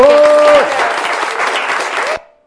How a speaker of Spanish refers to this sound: Por supuesto, Un aplauso para todos.